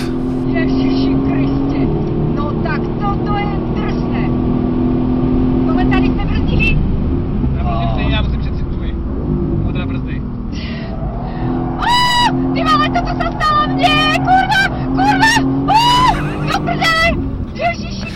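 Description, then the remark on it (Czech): A car engine roars and revs hard, pitch climbing and dropping through gear changes as the car drives a single fast lap on the Brno racetrack to show how it can be driven, loud, with a voice talking over the engine noise. “na konci dne jedem vždycky jedno kolo, tak aby jsme ukázali během toho jednoho kola, jak se s tím autem zhruba dá jet”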